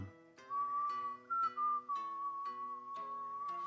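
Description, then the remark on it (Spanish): A person whistles a long, steady, clear note that shifts pitch slightly once, answering a mockingbird and matching its whistle, held over soft, rhythmic plucked tones in the background, with no talking. “Quisiera como, como empatar nuestros silbidos. Poco a poco los dos empatan el silbido.”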